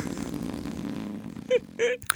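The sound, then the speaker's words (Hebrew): A long, rumbling fart with a low, sputtering texture, followed by two short, sharper squeaky bursts near the end. It's fairly loud, with no talking. “אנחנו הפודקאסט הראשון מישראל. כן. שמה, שמה. שמשמיע נפיחה.”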